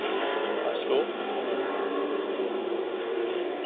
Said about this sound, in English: Let's hope it's not that truck. Number 69 going by, Milan Mesnick.